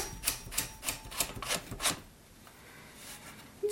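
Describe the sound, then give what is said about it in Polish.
A typewriter's small roller being turned to wind out a sheet of paper: a steady series of six or so crisp ratcheting clicks, evenly spaced, followed by a couple of seconds of quiet rustle. “Powiem jeszcze, że mały wałek służy do wykręcania kartki”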